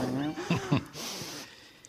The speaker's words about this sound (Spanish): bueno, eso que suena por ahí, el gato, el gato Brembo. Si esto, se, corta, es el gato que ha tirado un cable o algo, que está aquí.